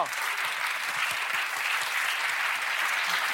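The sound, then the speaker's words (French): Steady, dense applause from an audience for contestants in a reading competition after its second round, many hands clapping together in a continuous crackling wash that holds an even loudness throughout, with no voices standing out. “On peut les applaudir.”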